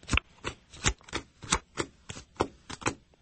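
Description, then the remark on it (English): Playing cards being shuffled and dealt face down: about ten crisp, papery slaps land one after another in a steady, quick rhythm, fairly quiet, with no talking. “Okay, it's nine D a deal shuffle. Now, deal right. five cards face down.”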